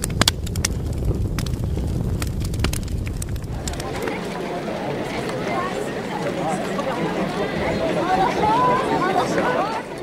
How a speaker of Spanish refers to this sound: Este es el sonido del Valle de los Reyes y esto es lo que escuchamos cuando entramos en la tumba de Tutankamón.